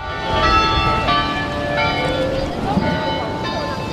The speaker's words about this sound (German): Es ist ein Glockenspiel bestehend aus 49 Glocken.